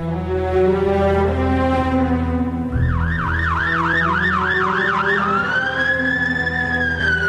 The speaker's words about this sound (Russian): Изредка проносится санитарная машина.